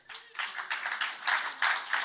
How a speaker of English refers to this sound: I think they deserve a, a clap for that.